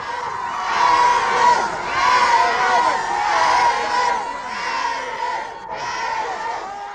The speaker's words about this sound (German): Zurück blieben seine Verehrer, die ihn zünftig verabschiedeten. Morgen werden andere an seinem Zug stehen. Schreien werden sie genauso.